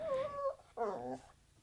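A dog named Pod Dog whimpers twice in quick succession, high thin whines with a short pause between them, moderately loud, with no talking over them.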